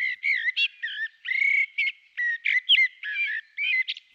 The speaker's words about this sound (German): Nicht weniger melodiös klingt auch ein anderer Vogel, der bei uns in Deutschland das ganze Jahr über zu hören ist, die Amsel.